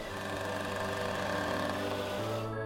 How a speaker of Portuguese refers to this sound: Uma garota loira, de óculos escuros, passa numa moto vermelha.